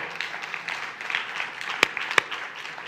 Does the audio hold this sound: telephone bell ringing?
no